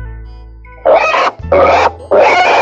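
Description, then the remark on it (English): Two pigs oinking and grunting in three loud, harsh bursts, each about half a second long with short gaps between them, and no talking over them, in a reading of the story Two Crazy Pigs by Karen Berman Nagel. “We are two crazy pigs.”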